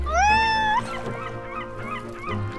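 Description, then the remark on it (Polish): A cat aboard a boat on the open sea lets out one loud meow that rises in pitch and holds briefly, then fades into a quieter, steady tonal background. “No i ten kot. Kot na otwartym morzu?”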